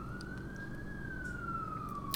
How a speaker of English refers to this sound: Hell, hear them sirens!